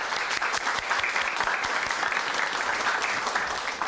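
A crowd applauds steadily, dense clapping filling the room at a strong, even level for several seconds with no voices over it.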